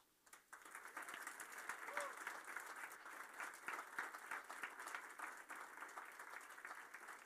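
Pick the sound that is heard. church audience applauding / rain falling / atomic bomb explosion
church audience applauding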